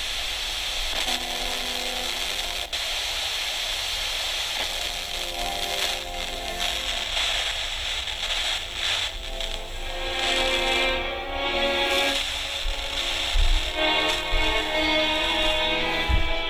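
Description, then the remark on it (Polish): A portable radio hisses with static and warbling tones. The set is turned on purpose to fight the filters, gradually strengthening a station's signal and at moments losing it, so the signal swells and fades unevenly. Faint handling clicks run throughout, with no voices. “Celowo tak kręcę odbiornikiem, żeby walczyć z filtrami.”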